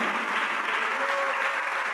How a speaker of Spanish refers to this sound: Da un aplauso a Jesús, hermano.